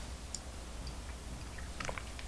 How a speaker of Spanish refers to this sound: Después de una intensa semana informativa me merezco un largo sorbido de café, que es justamente lo que voy a hacer ahora